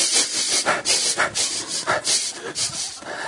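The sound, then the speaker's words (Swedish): A voice imitates a dog's nose sniffing, mimicking a wife smelling her husband when he comes home from work: a rapid, steady series of short, breathy, hissing sniffs, fairly loud and airy, with no talk in between. “Och så, och så hör jag alltid hur näsan börjar gå.”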